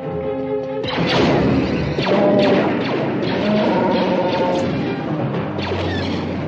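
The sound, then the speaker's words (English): Heavy blast doors slam shut with a loud, booming metallic crash, followed by several seconds of dense clanging and rumbling with faint ringing tones underneath. No voices are heard. “Close the blast doors!”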